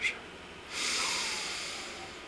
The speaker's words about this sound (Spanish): Concéntrate en tu respiración al inhalar